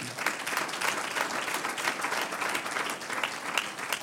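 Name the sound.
audience applause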